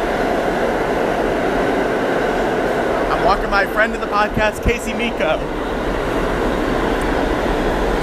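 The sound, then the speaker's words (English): A loud, steady rumble of a train passing through a station fills the whole recording, while a person talks briefly over the noise partway through. “Hold oh, on, that's not my train.”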